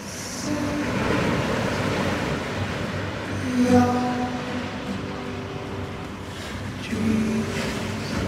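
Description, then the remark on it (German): Waves wash steadily along the shoreline of the Gaza coast in a continuous broad rush, while a passing motor adds a brief humming tone twice in the background. No one speaks. “Nur unten an der Küste von Gaza scheint der Horizont weit und offen.”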